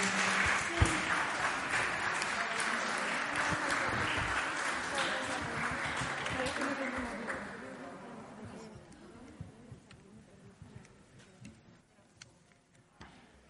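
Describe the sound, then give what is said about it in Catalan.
A crowd in the hall of IES Llombai in Borriana claps after live music by first-year ESO students using their mobile phones as instruments, a dense burst of applause that stays strong for several seconds, then thins into scattered, fading claps with faint voices murmuring underneath. “aplaudiment.”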